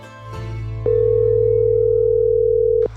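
A single steady telephone ringing tone as a man calls his mentor, a gentleman coach, for help and support, sounding for about two seconds, clear and fairly loud, with a click at its start and end over a low continuous background hum.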